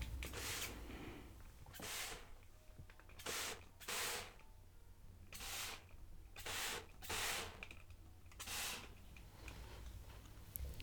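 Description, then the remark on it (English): A water spray bottle spritzes water onto a person's hair, about nine short hissing bursts in an uneven rhythm, with quiet pauses between them and no talking. “He's put a towel around your front and he's spraying your hair with water.”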